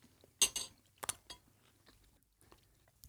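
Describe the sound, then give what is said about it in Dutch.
Crunchy chewing of firm, dense black chickpeas: a few sharp, loud crunches in the first second and a half, then softer, quieter mouth sounds with no talking. “Je moet er meer op kouwen.”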